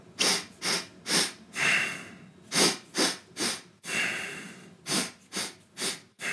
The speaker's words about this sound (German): Power Walk war mit einem Mantra verbunden und er war mit einer Atmung verbunden. Die Atmung war dreimal einatmen, einmal aus